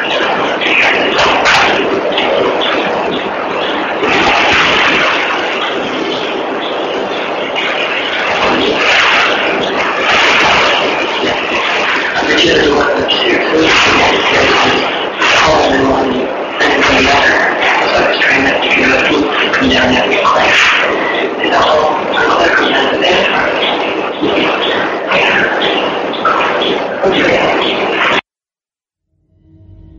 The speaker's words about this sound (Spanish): combinación de llantos, gritos de mujer y hombre. Yo cuando lo escuché, me imaginé como si fuera una escena de violación.